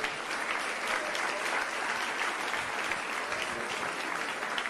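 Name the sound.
audience applauding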